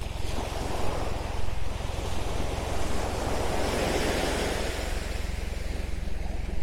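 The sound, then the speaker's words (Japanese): Steady ocean surf washing onto a beach at Hayama, Japan, at dusk, a continuous broad rushing wash with gentle swells, mixed with some low wind rumble against the microphone. No voices are heard. “夕暮れどきの一番キレイに海が輝く時間帯に、波音をお届け。”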